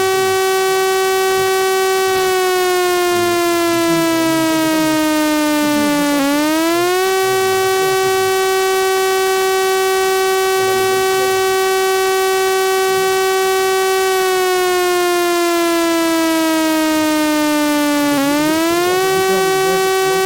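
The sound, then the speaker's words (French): A loud, sustained civil defense alert siren wails steadily, its pitch sliding down and then snapping back up in repeated cycles, with rich harmonics and no voices over it; the signal tells people to go to a radio and shelter at home. “est un signal d'alerte. C'est-à-dire qu'il faut immédiatement vous précipiter vers la radio, vous confiner dans votre, maison en attendant d'avoir des informations.”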